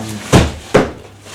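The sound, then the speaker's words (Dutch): Two dull wooden knocks about half a second apart, a cupboard door being opened and handled while looking through a cupboard for records to play, with faint low rumble between and no talking. “Ik ga nog één of twee platen draaien. Dus ik kijk eventjes in mijn kast.”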